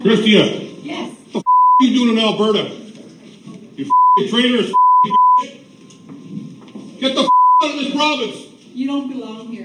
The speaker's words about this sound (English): Severely, uh, obviously, bleeped there. Uh, that, what you heard was. Uh, Deputy Prime Minister Chrystia Freeland being verbally harassed at City Hall in Alberta over the weekend.